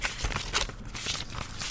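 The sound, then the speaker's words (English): Small pieces of paper with notes being rifled through, a steady run of dry rustling and crinkling with several sharper flicks, no one speaking. “I have I have a few pieces of paper, so you might hear me rifling you through those.”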